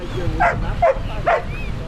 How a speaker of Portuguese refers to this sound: O latido é um sinal.